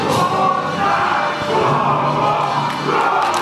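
The Ukrainian national handball team chants together before a charity friendly match against SG Leutershausen in the Heinrich-Beck-Halle in Hirschberg: a loud, rousing group cry, voices overlapping in a steady roar that echoes through the large indoor hall for a few seconds.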